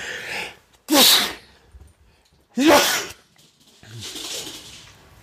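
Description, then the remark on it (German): Two loud, sharp sneezes a couple of seconds apart, followed by a softer breathy exhale; no talking. “Entschuldigung, muss kurz niesen.”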